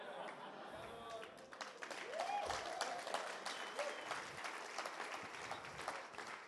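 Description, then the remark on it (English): A church audience bursts into sustained applause for the preacher, dense and steady clapping with scattered cheers and a few raised voices mixed in, holding at a fairly even loudness throughout. “Even our applause and our response to the preacher needs to be generous.”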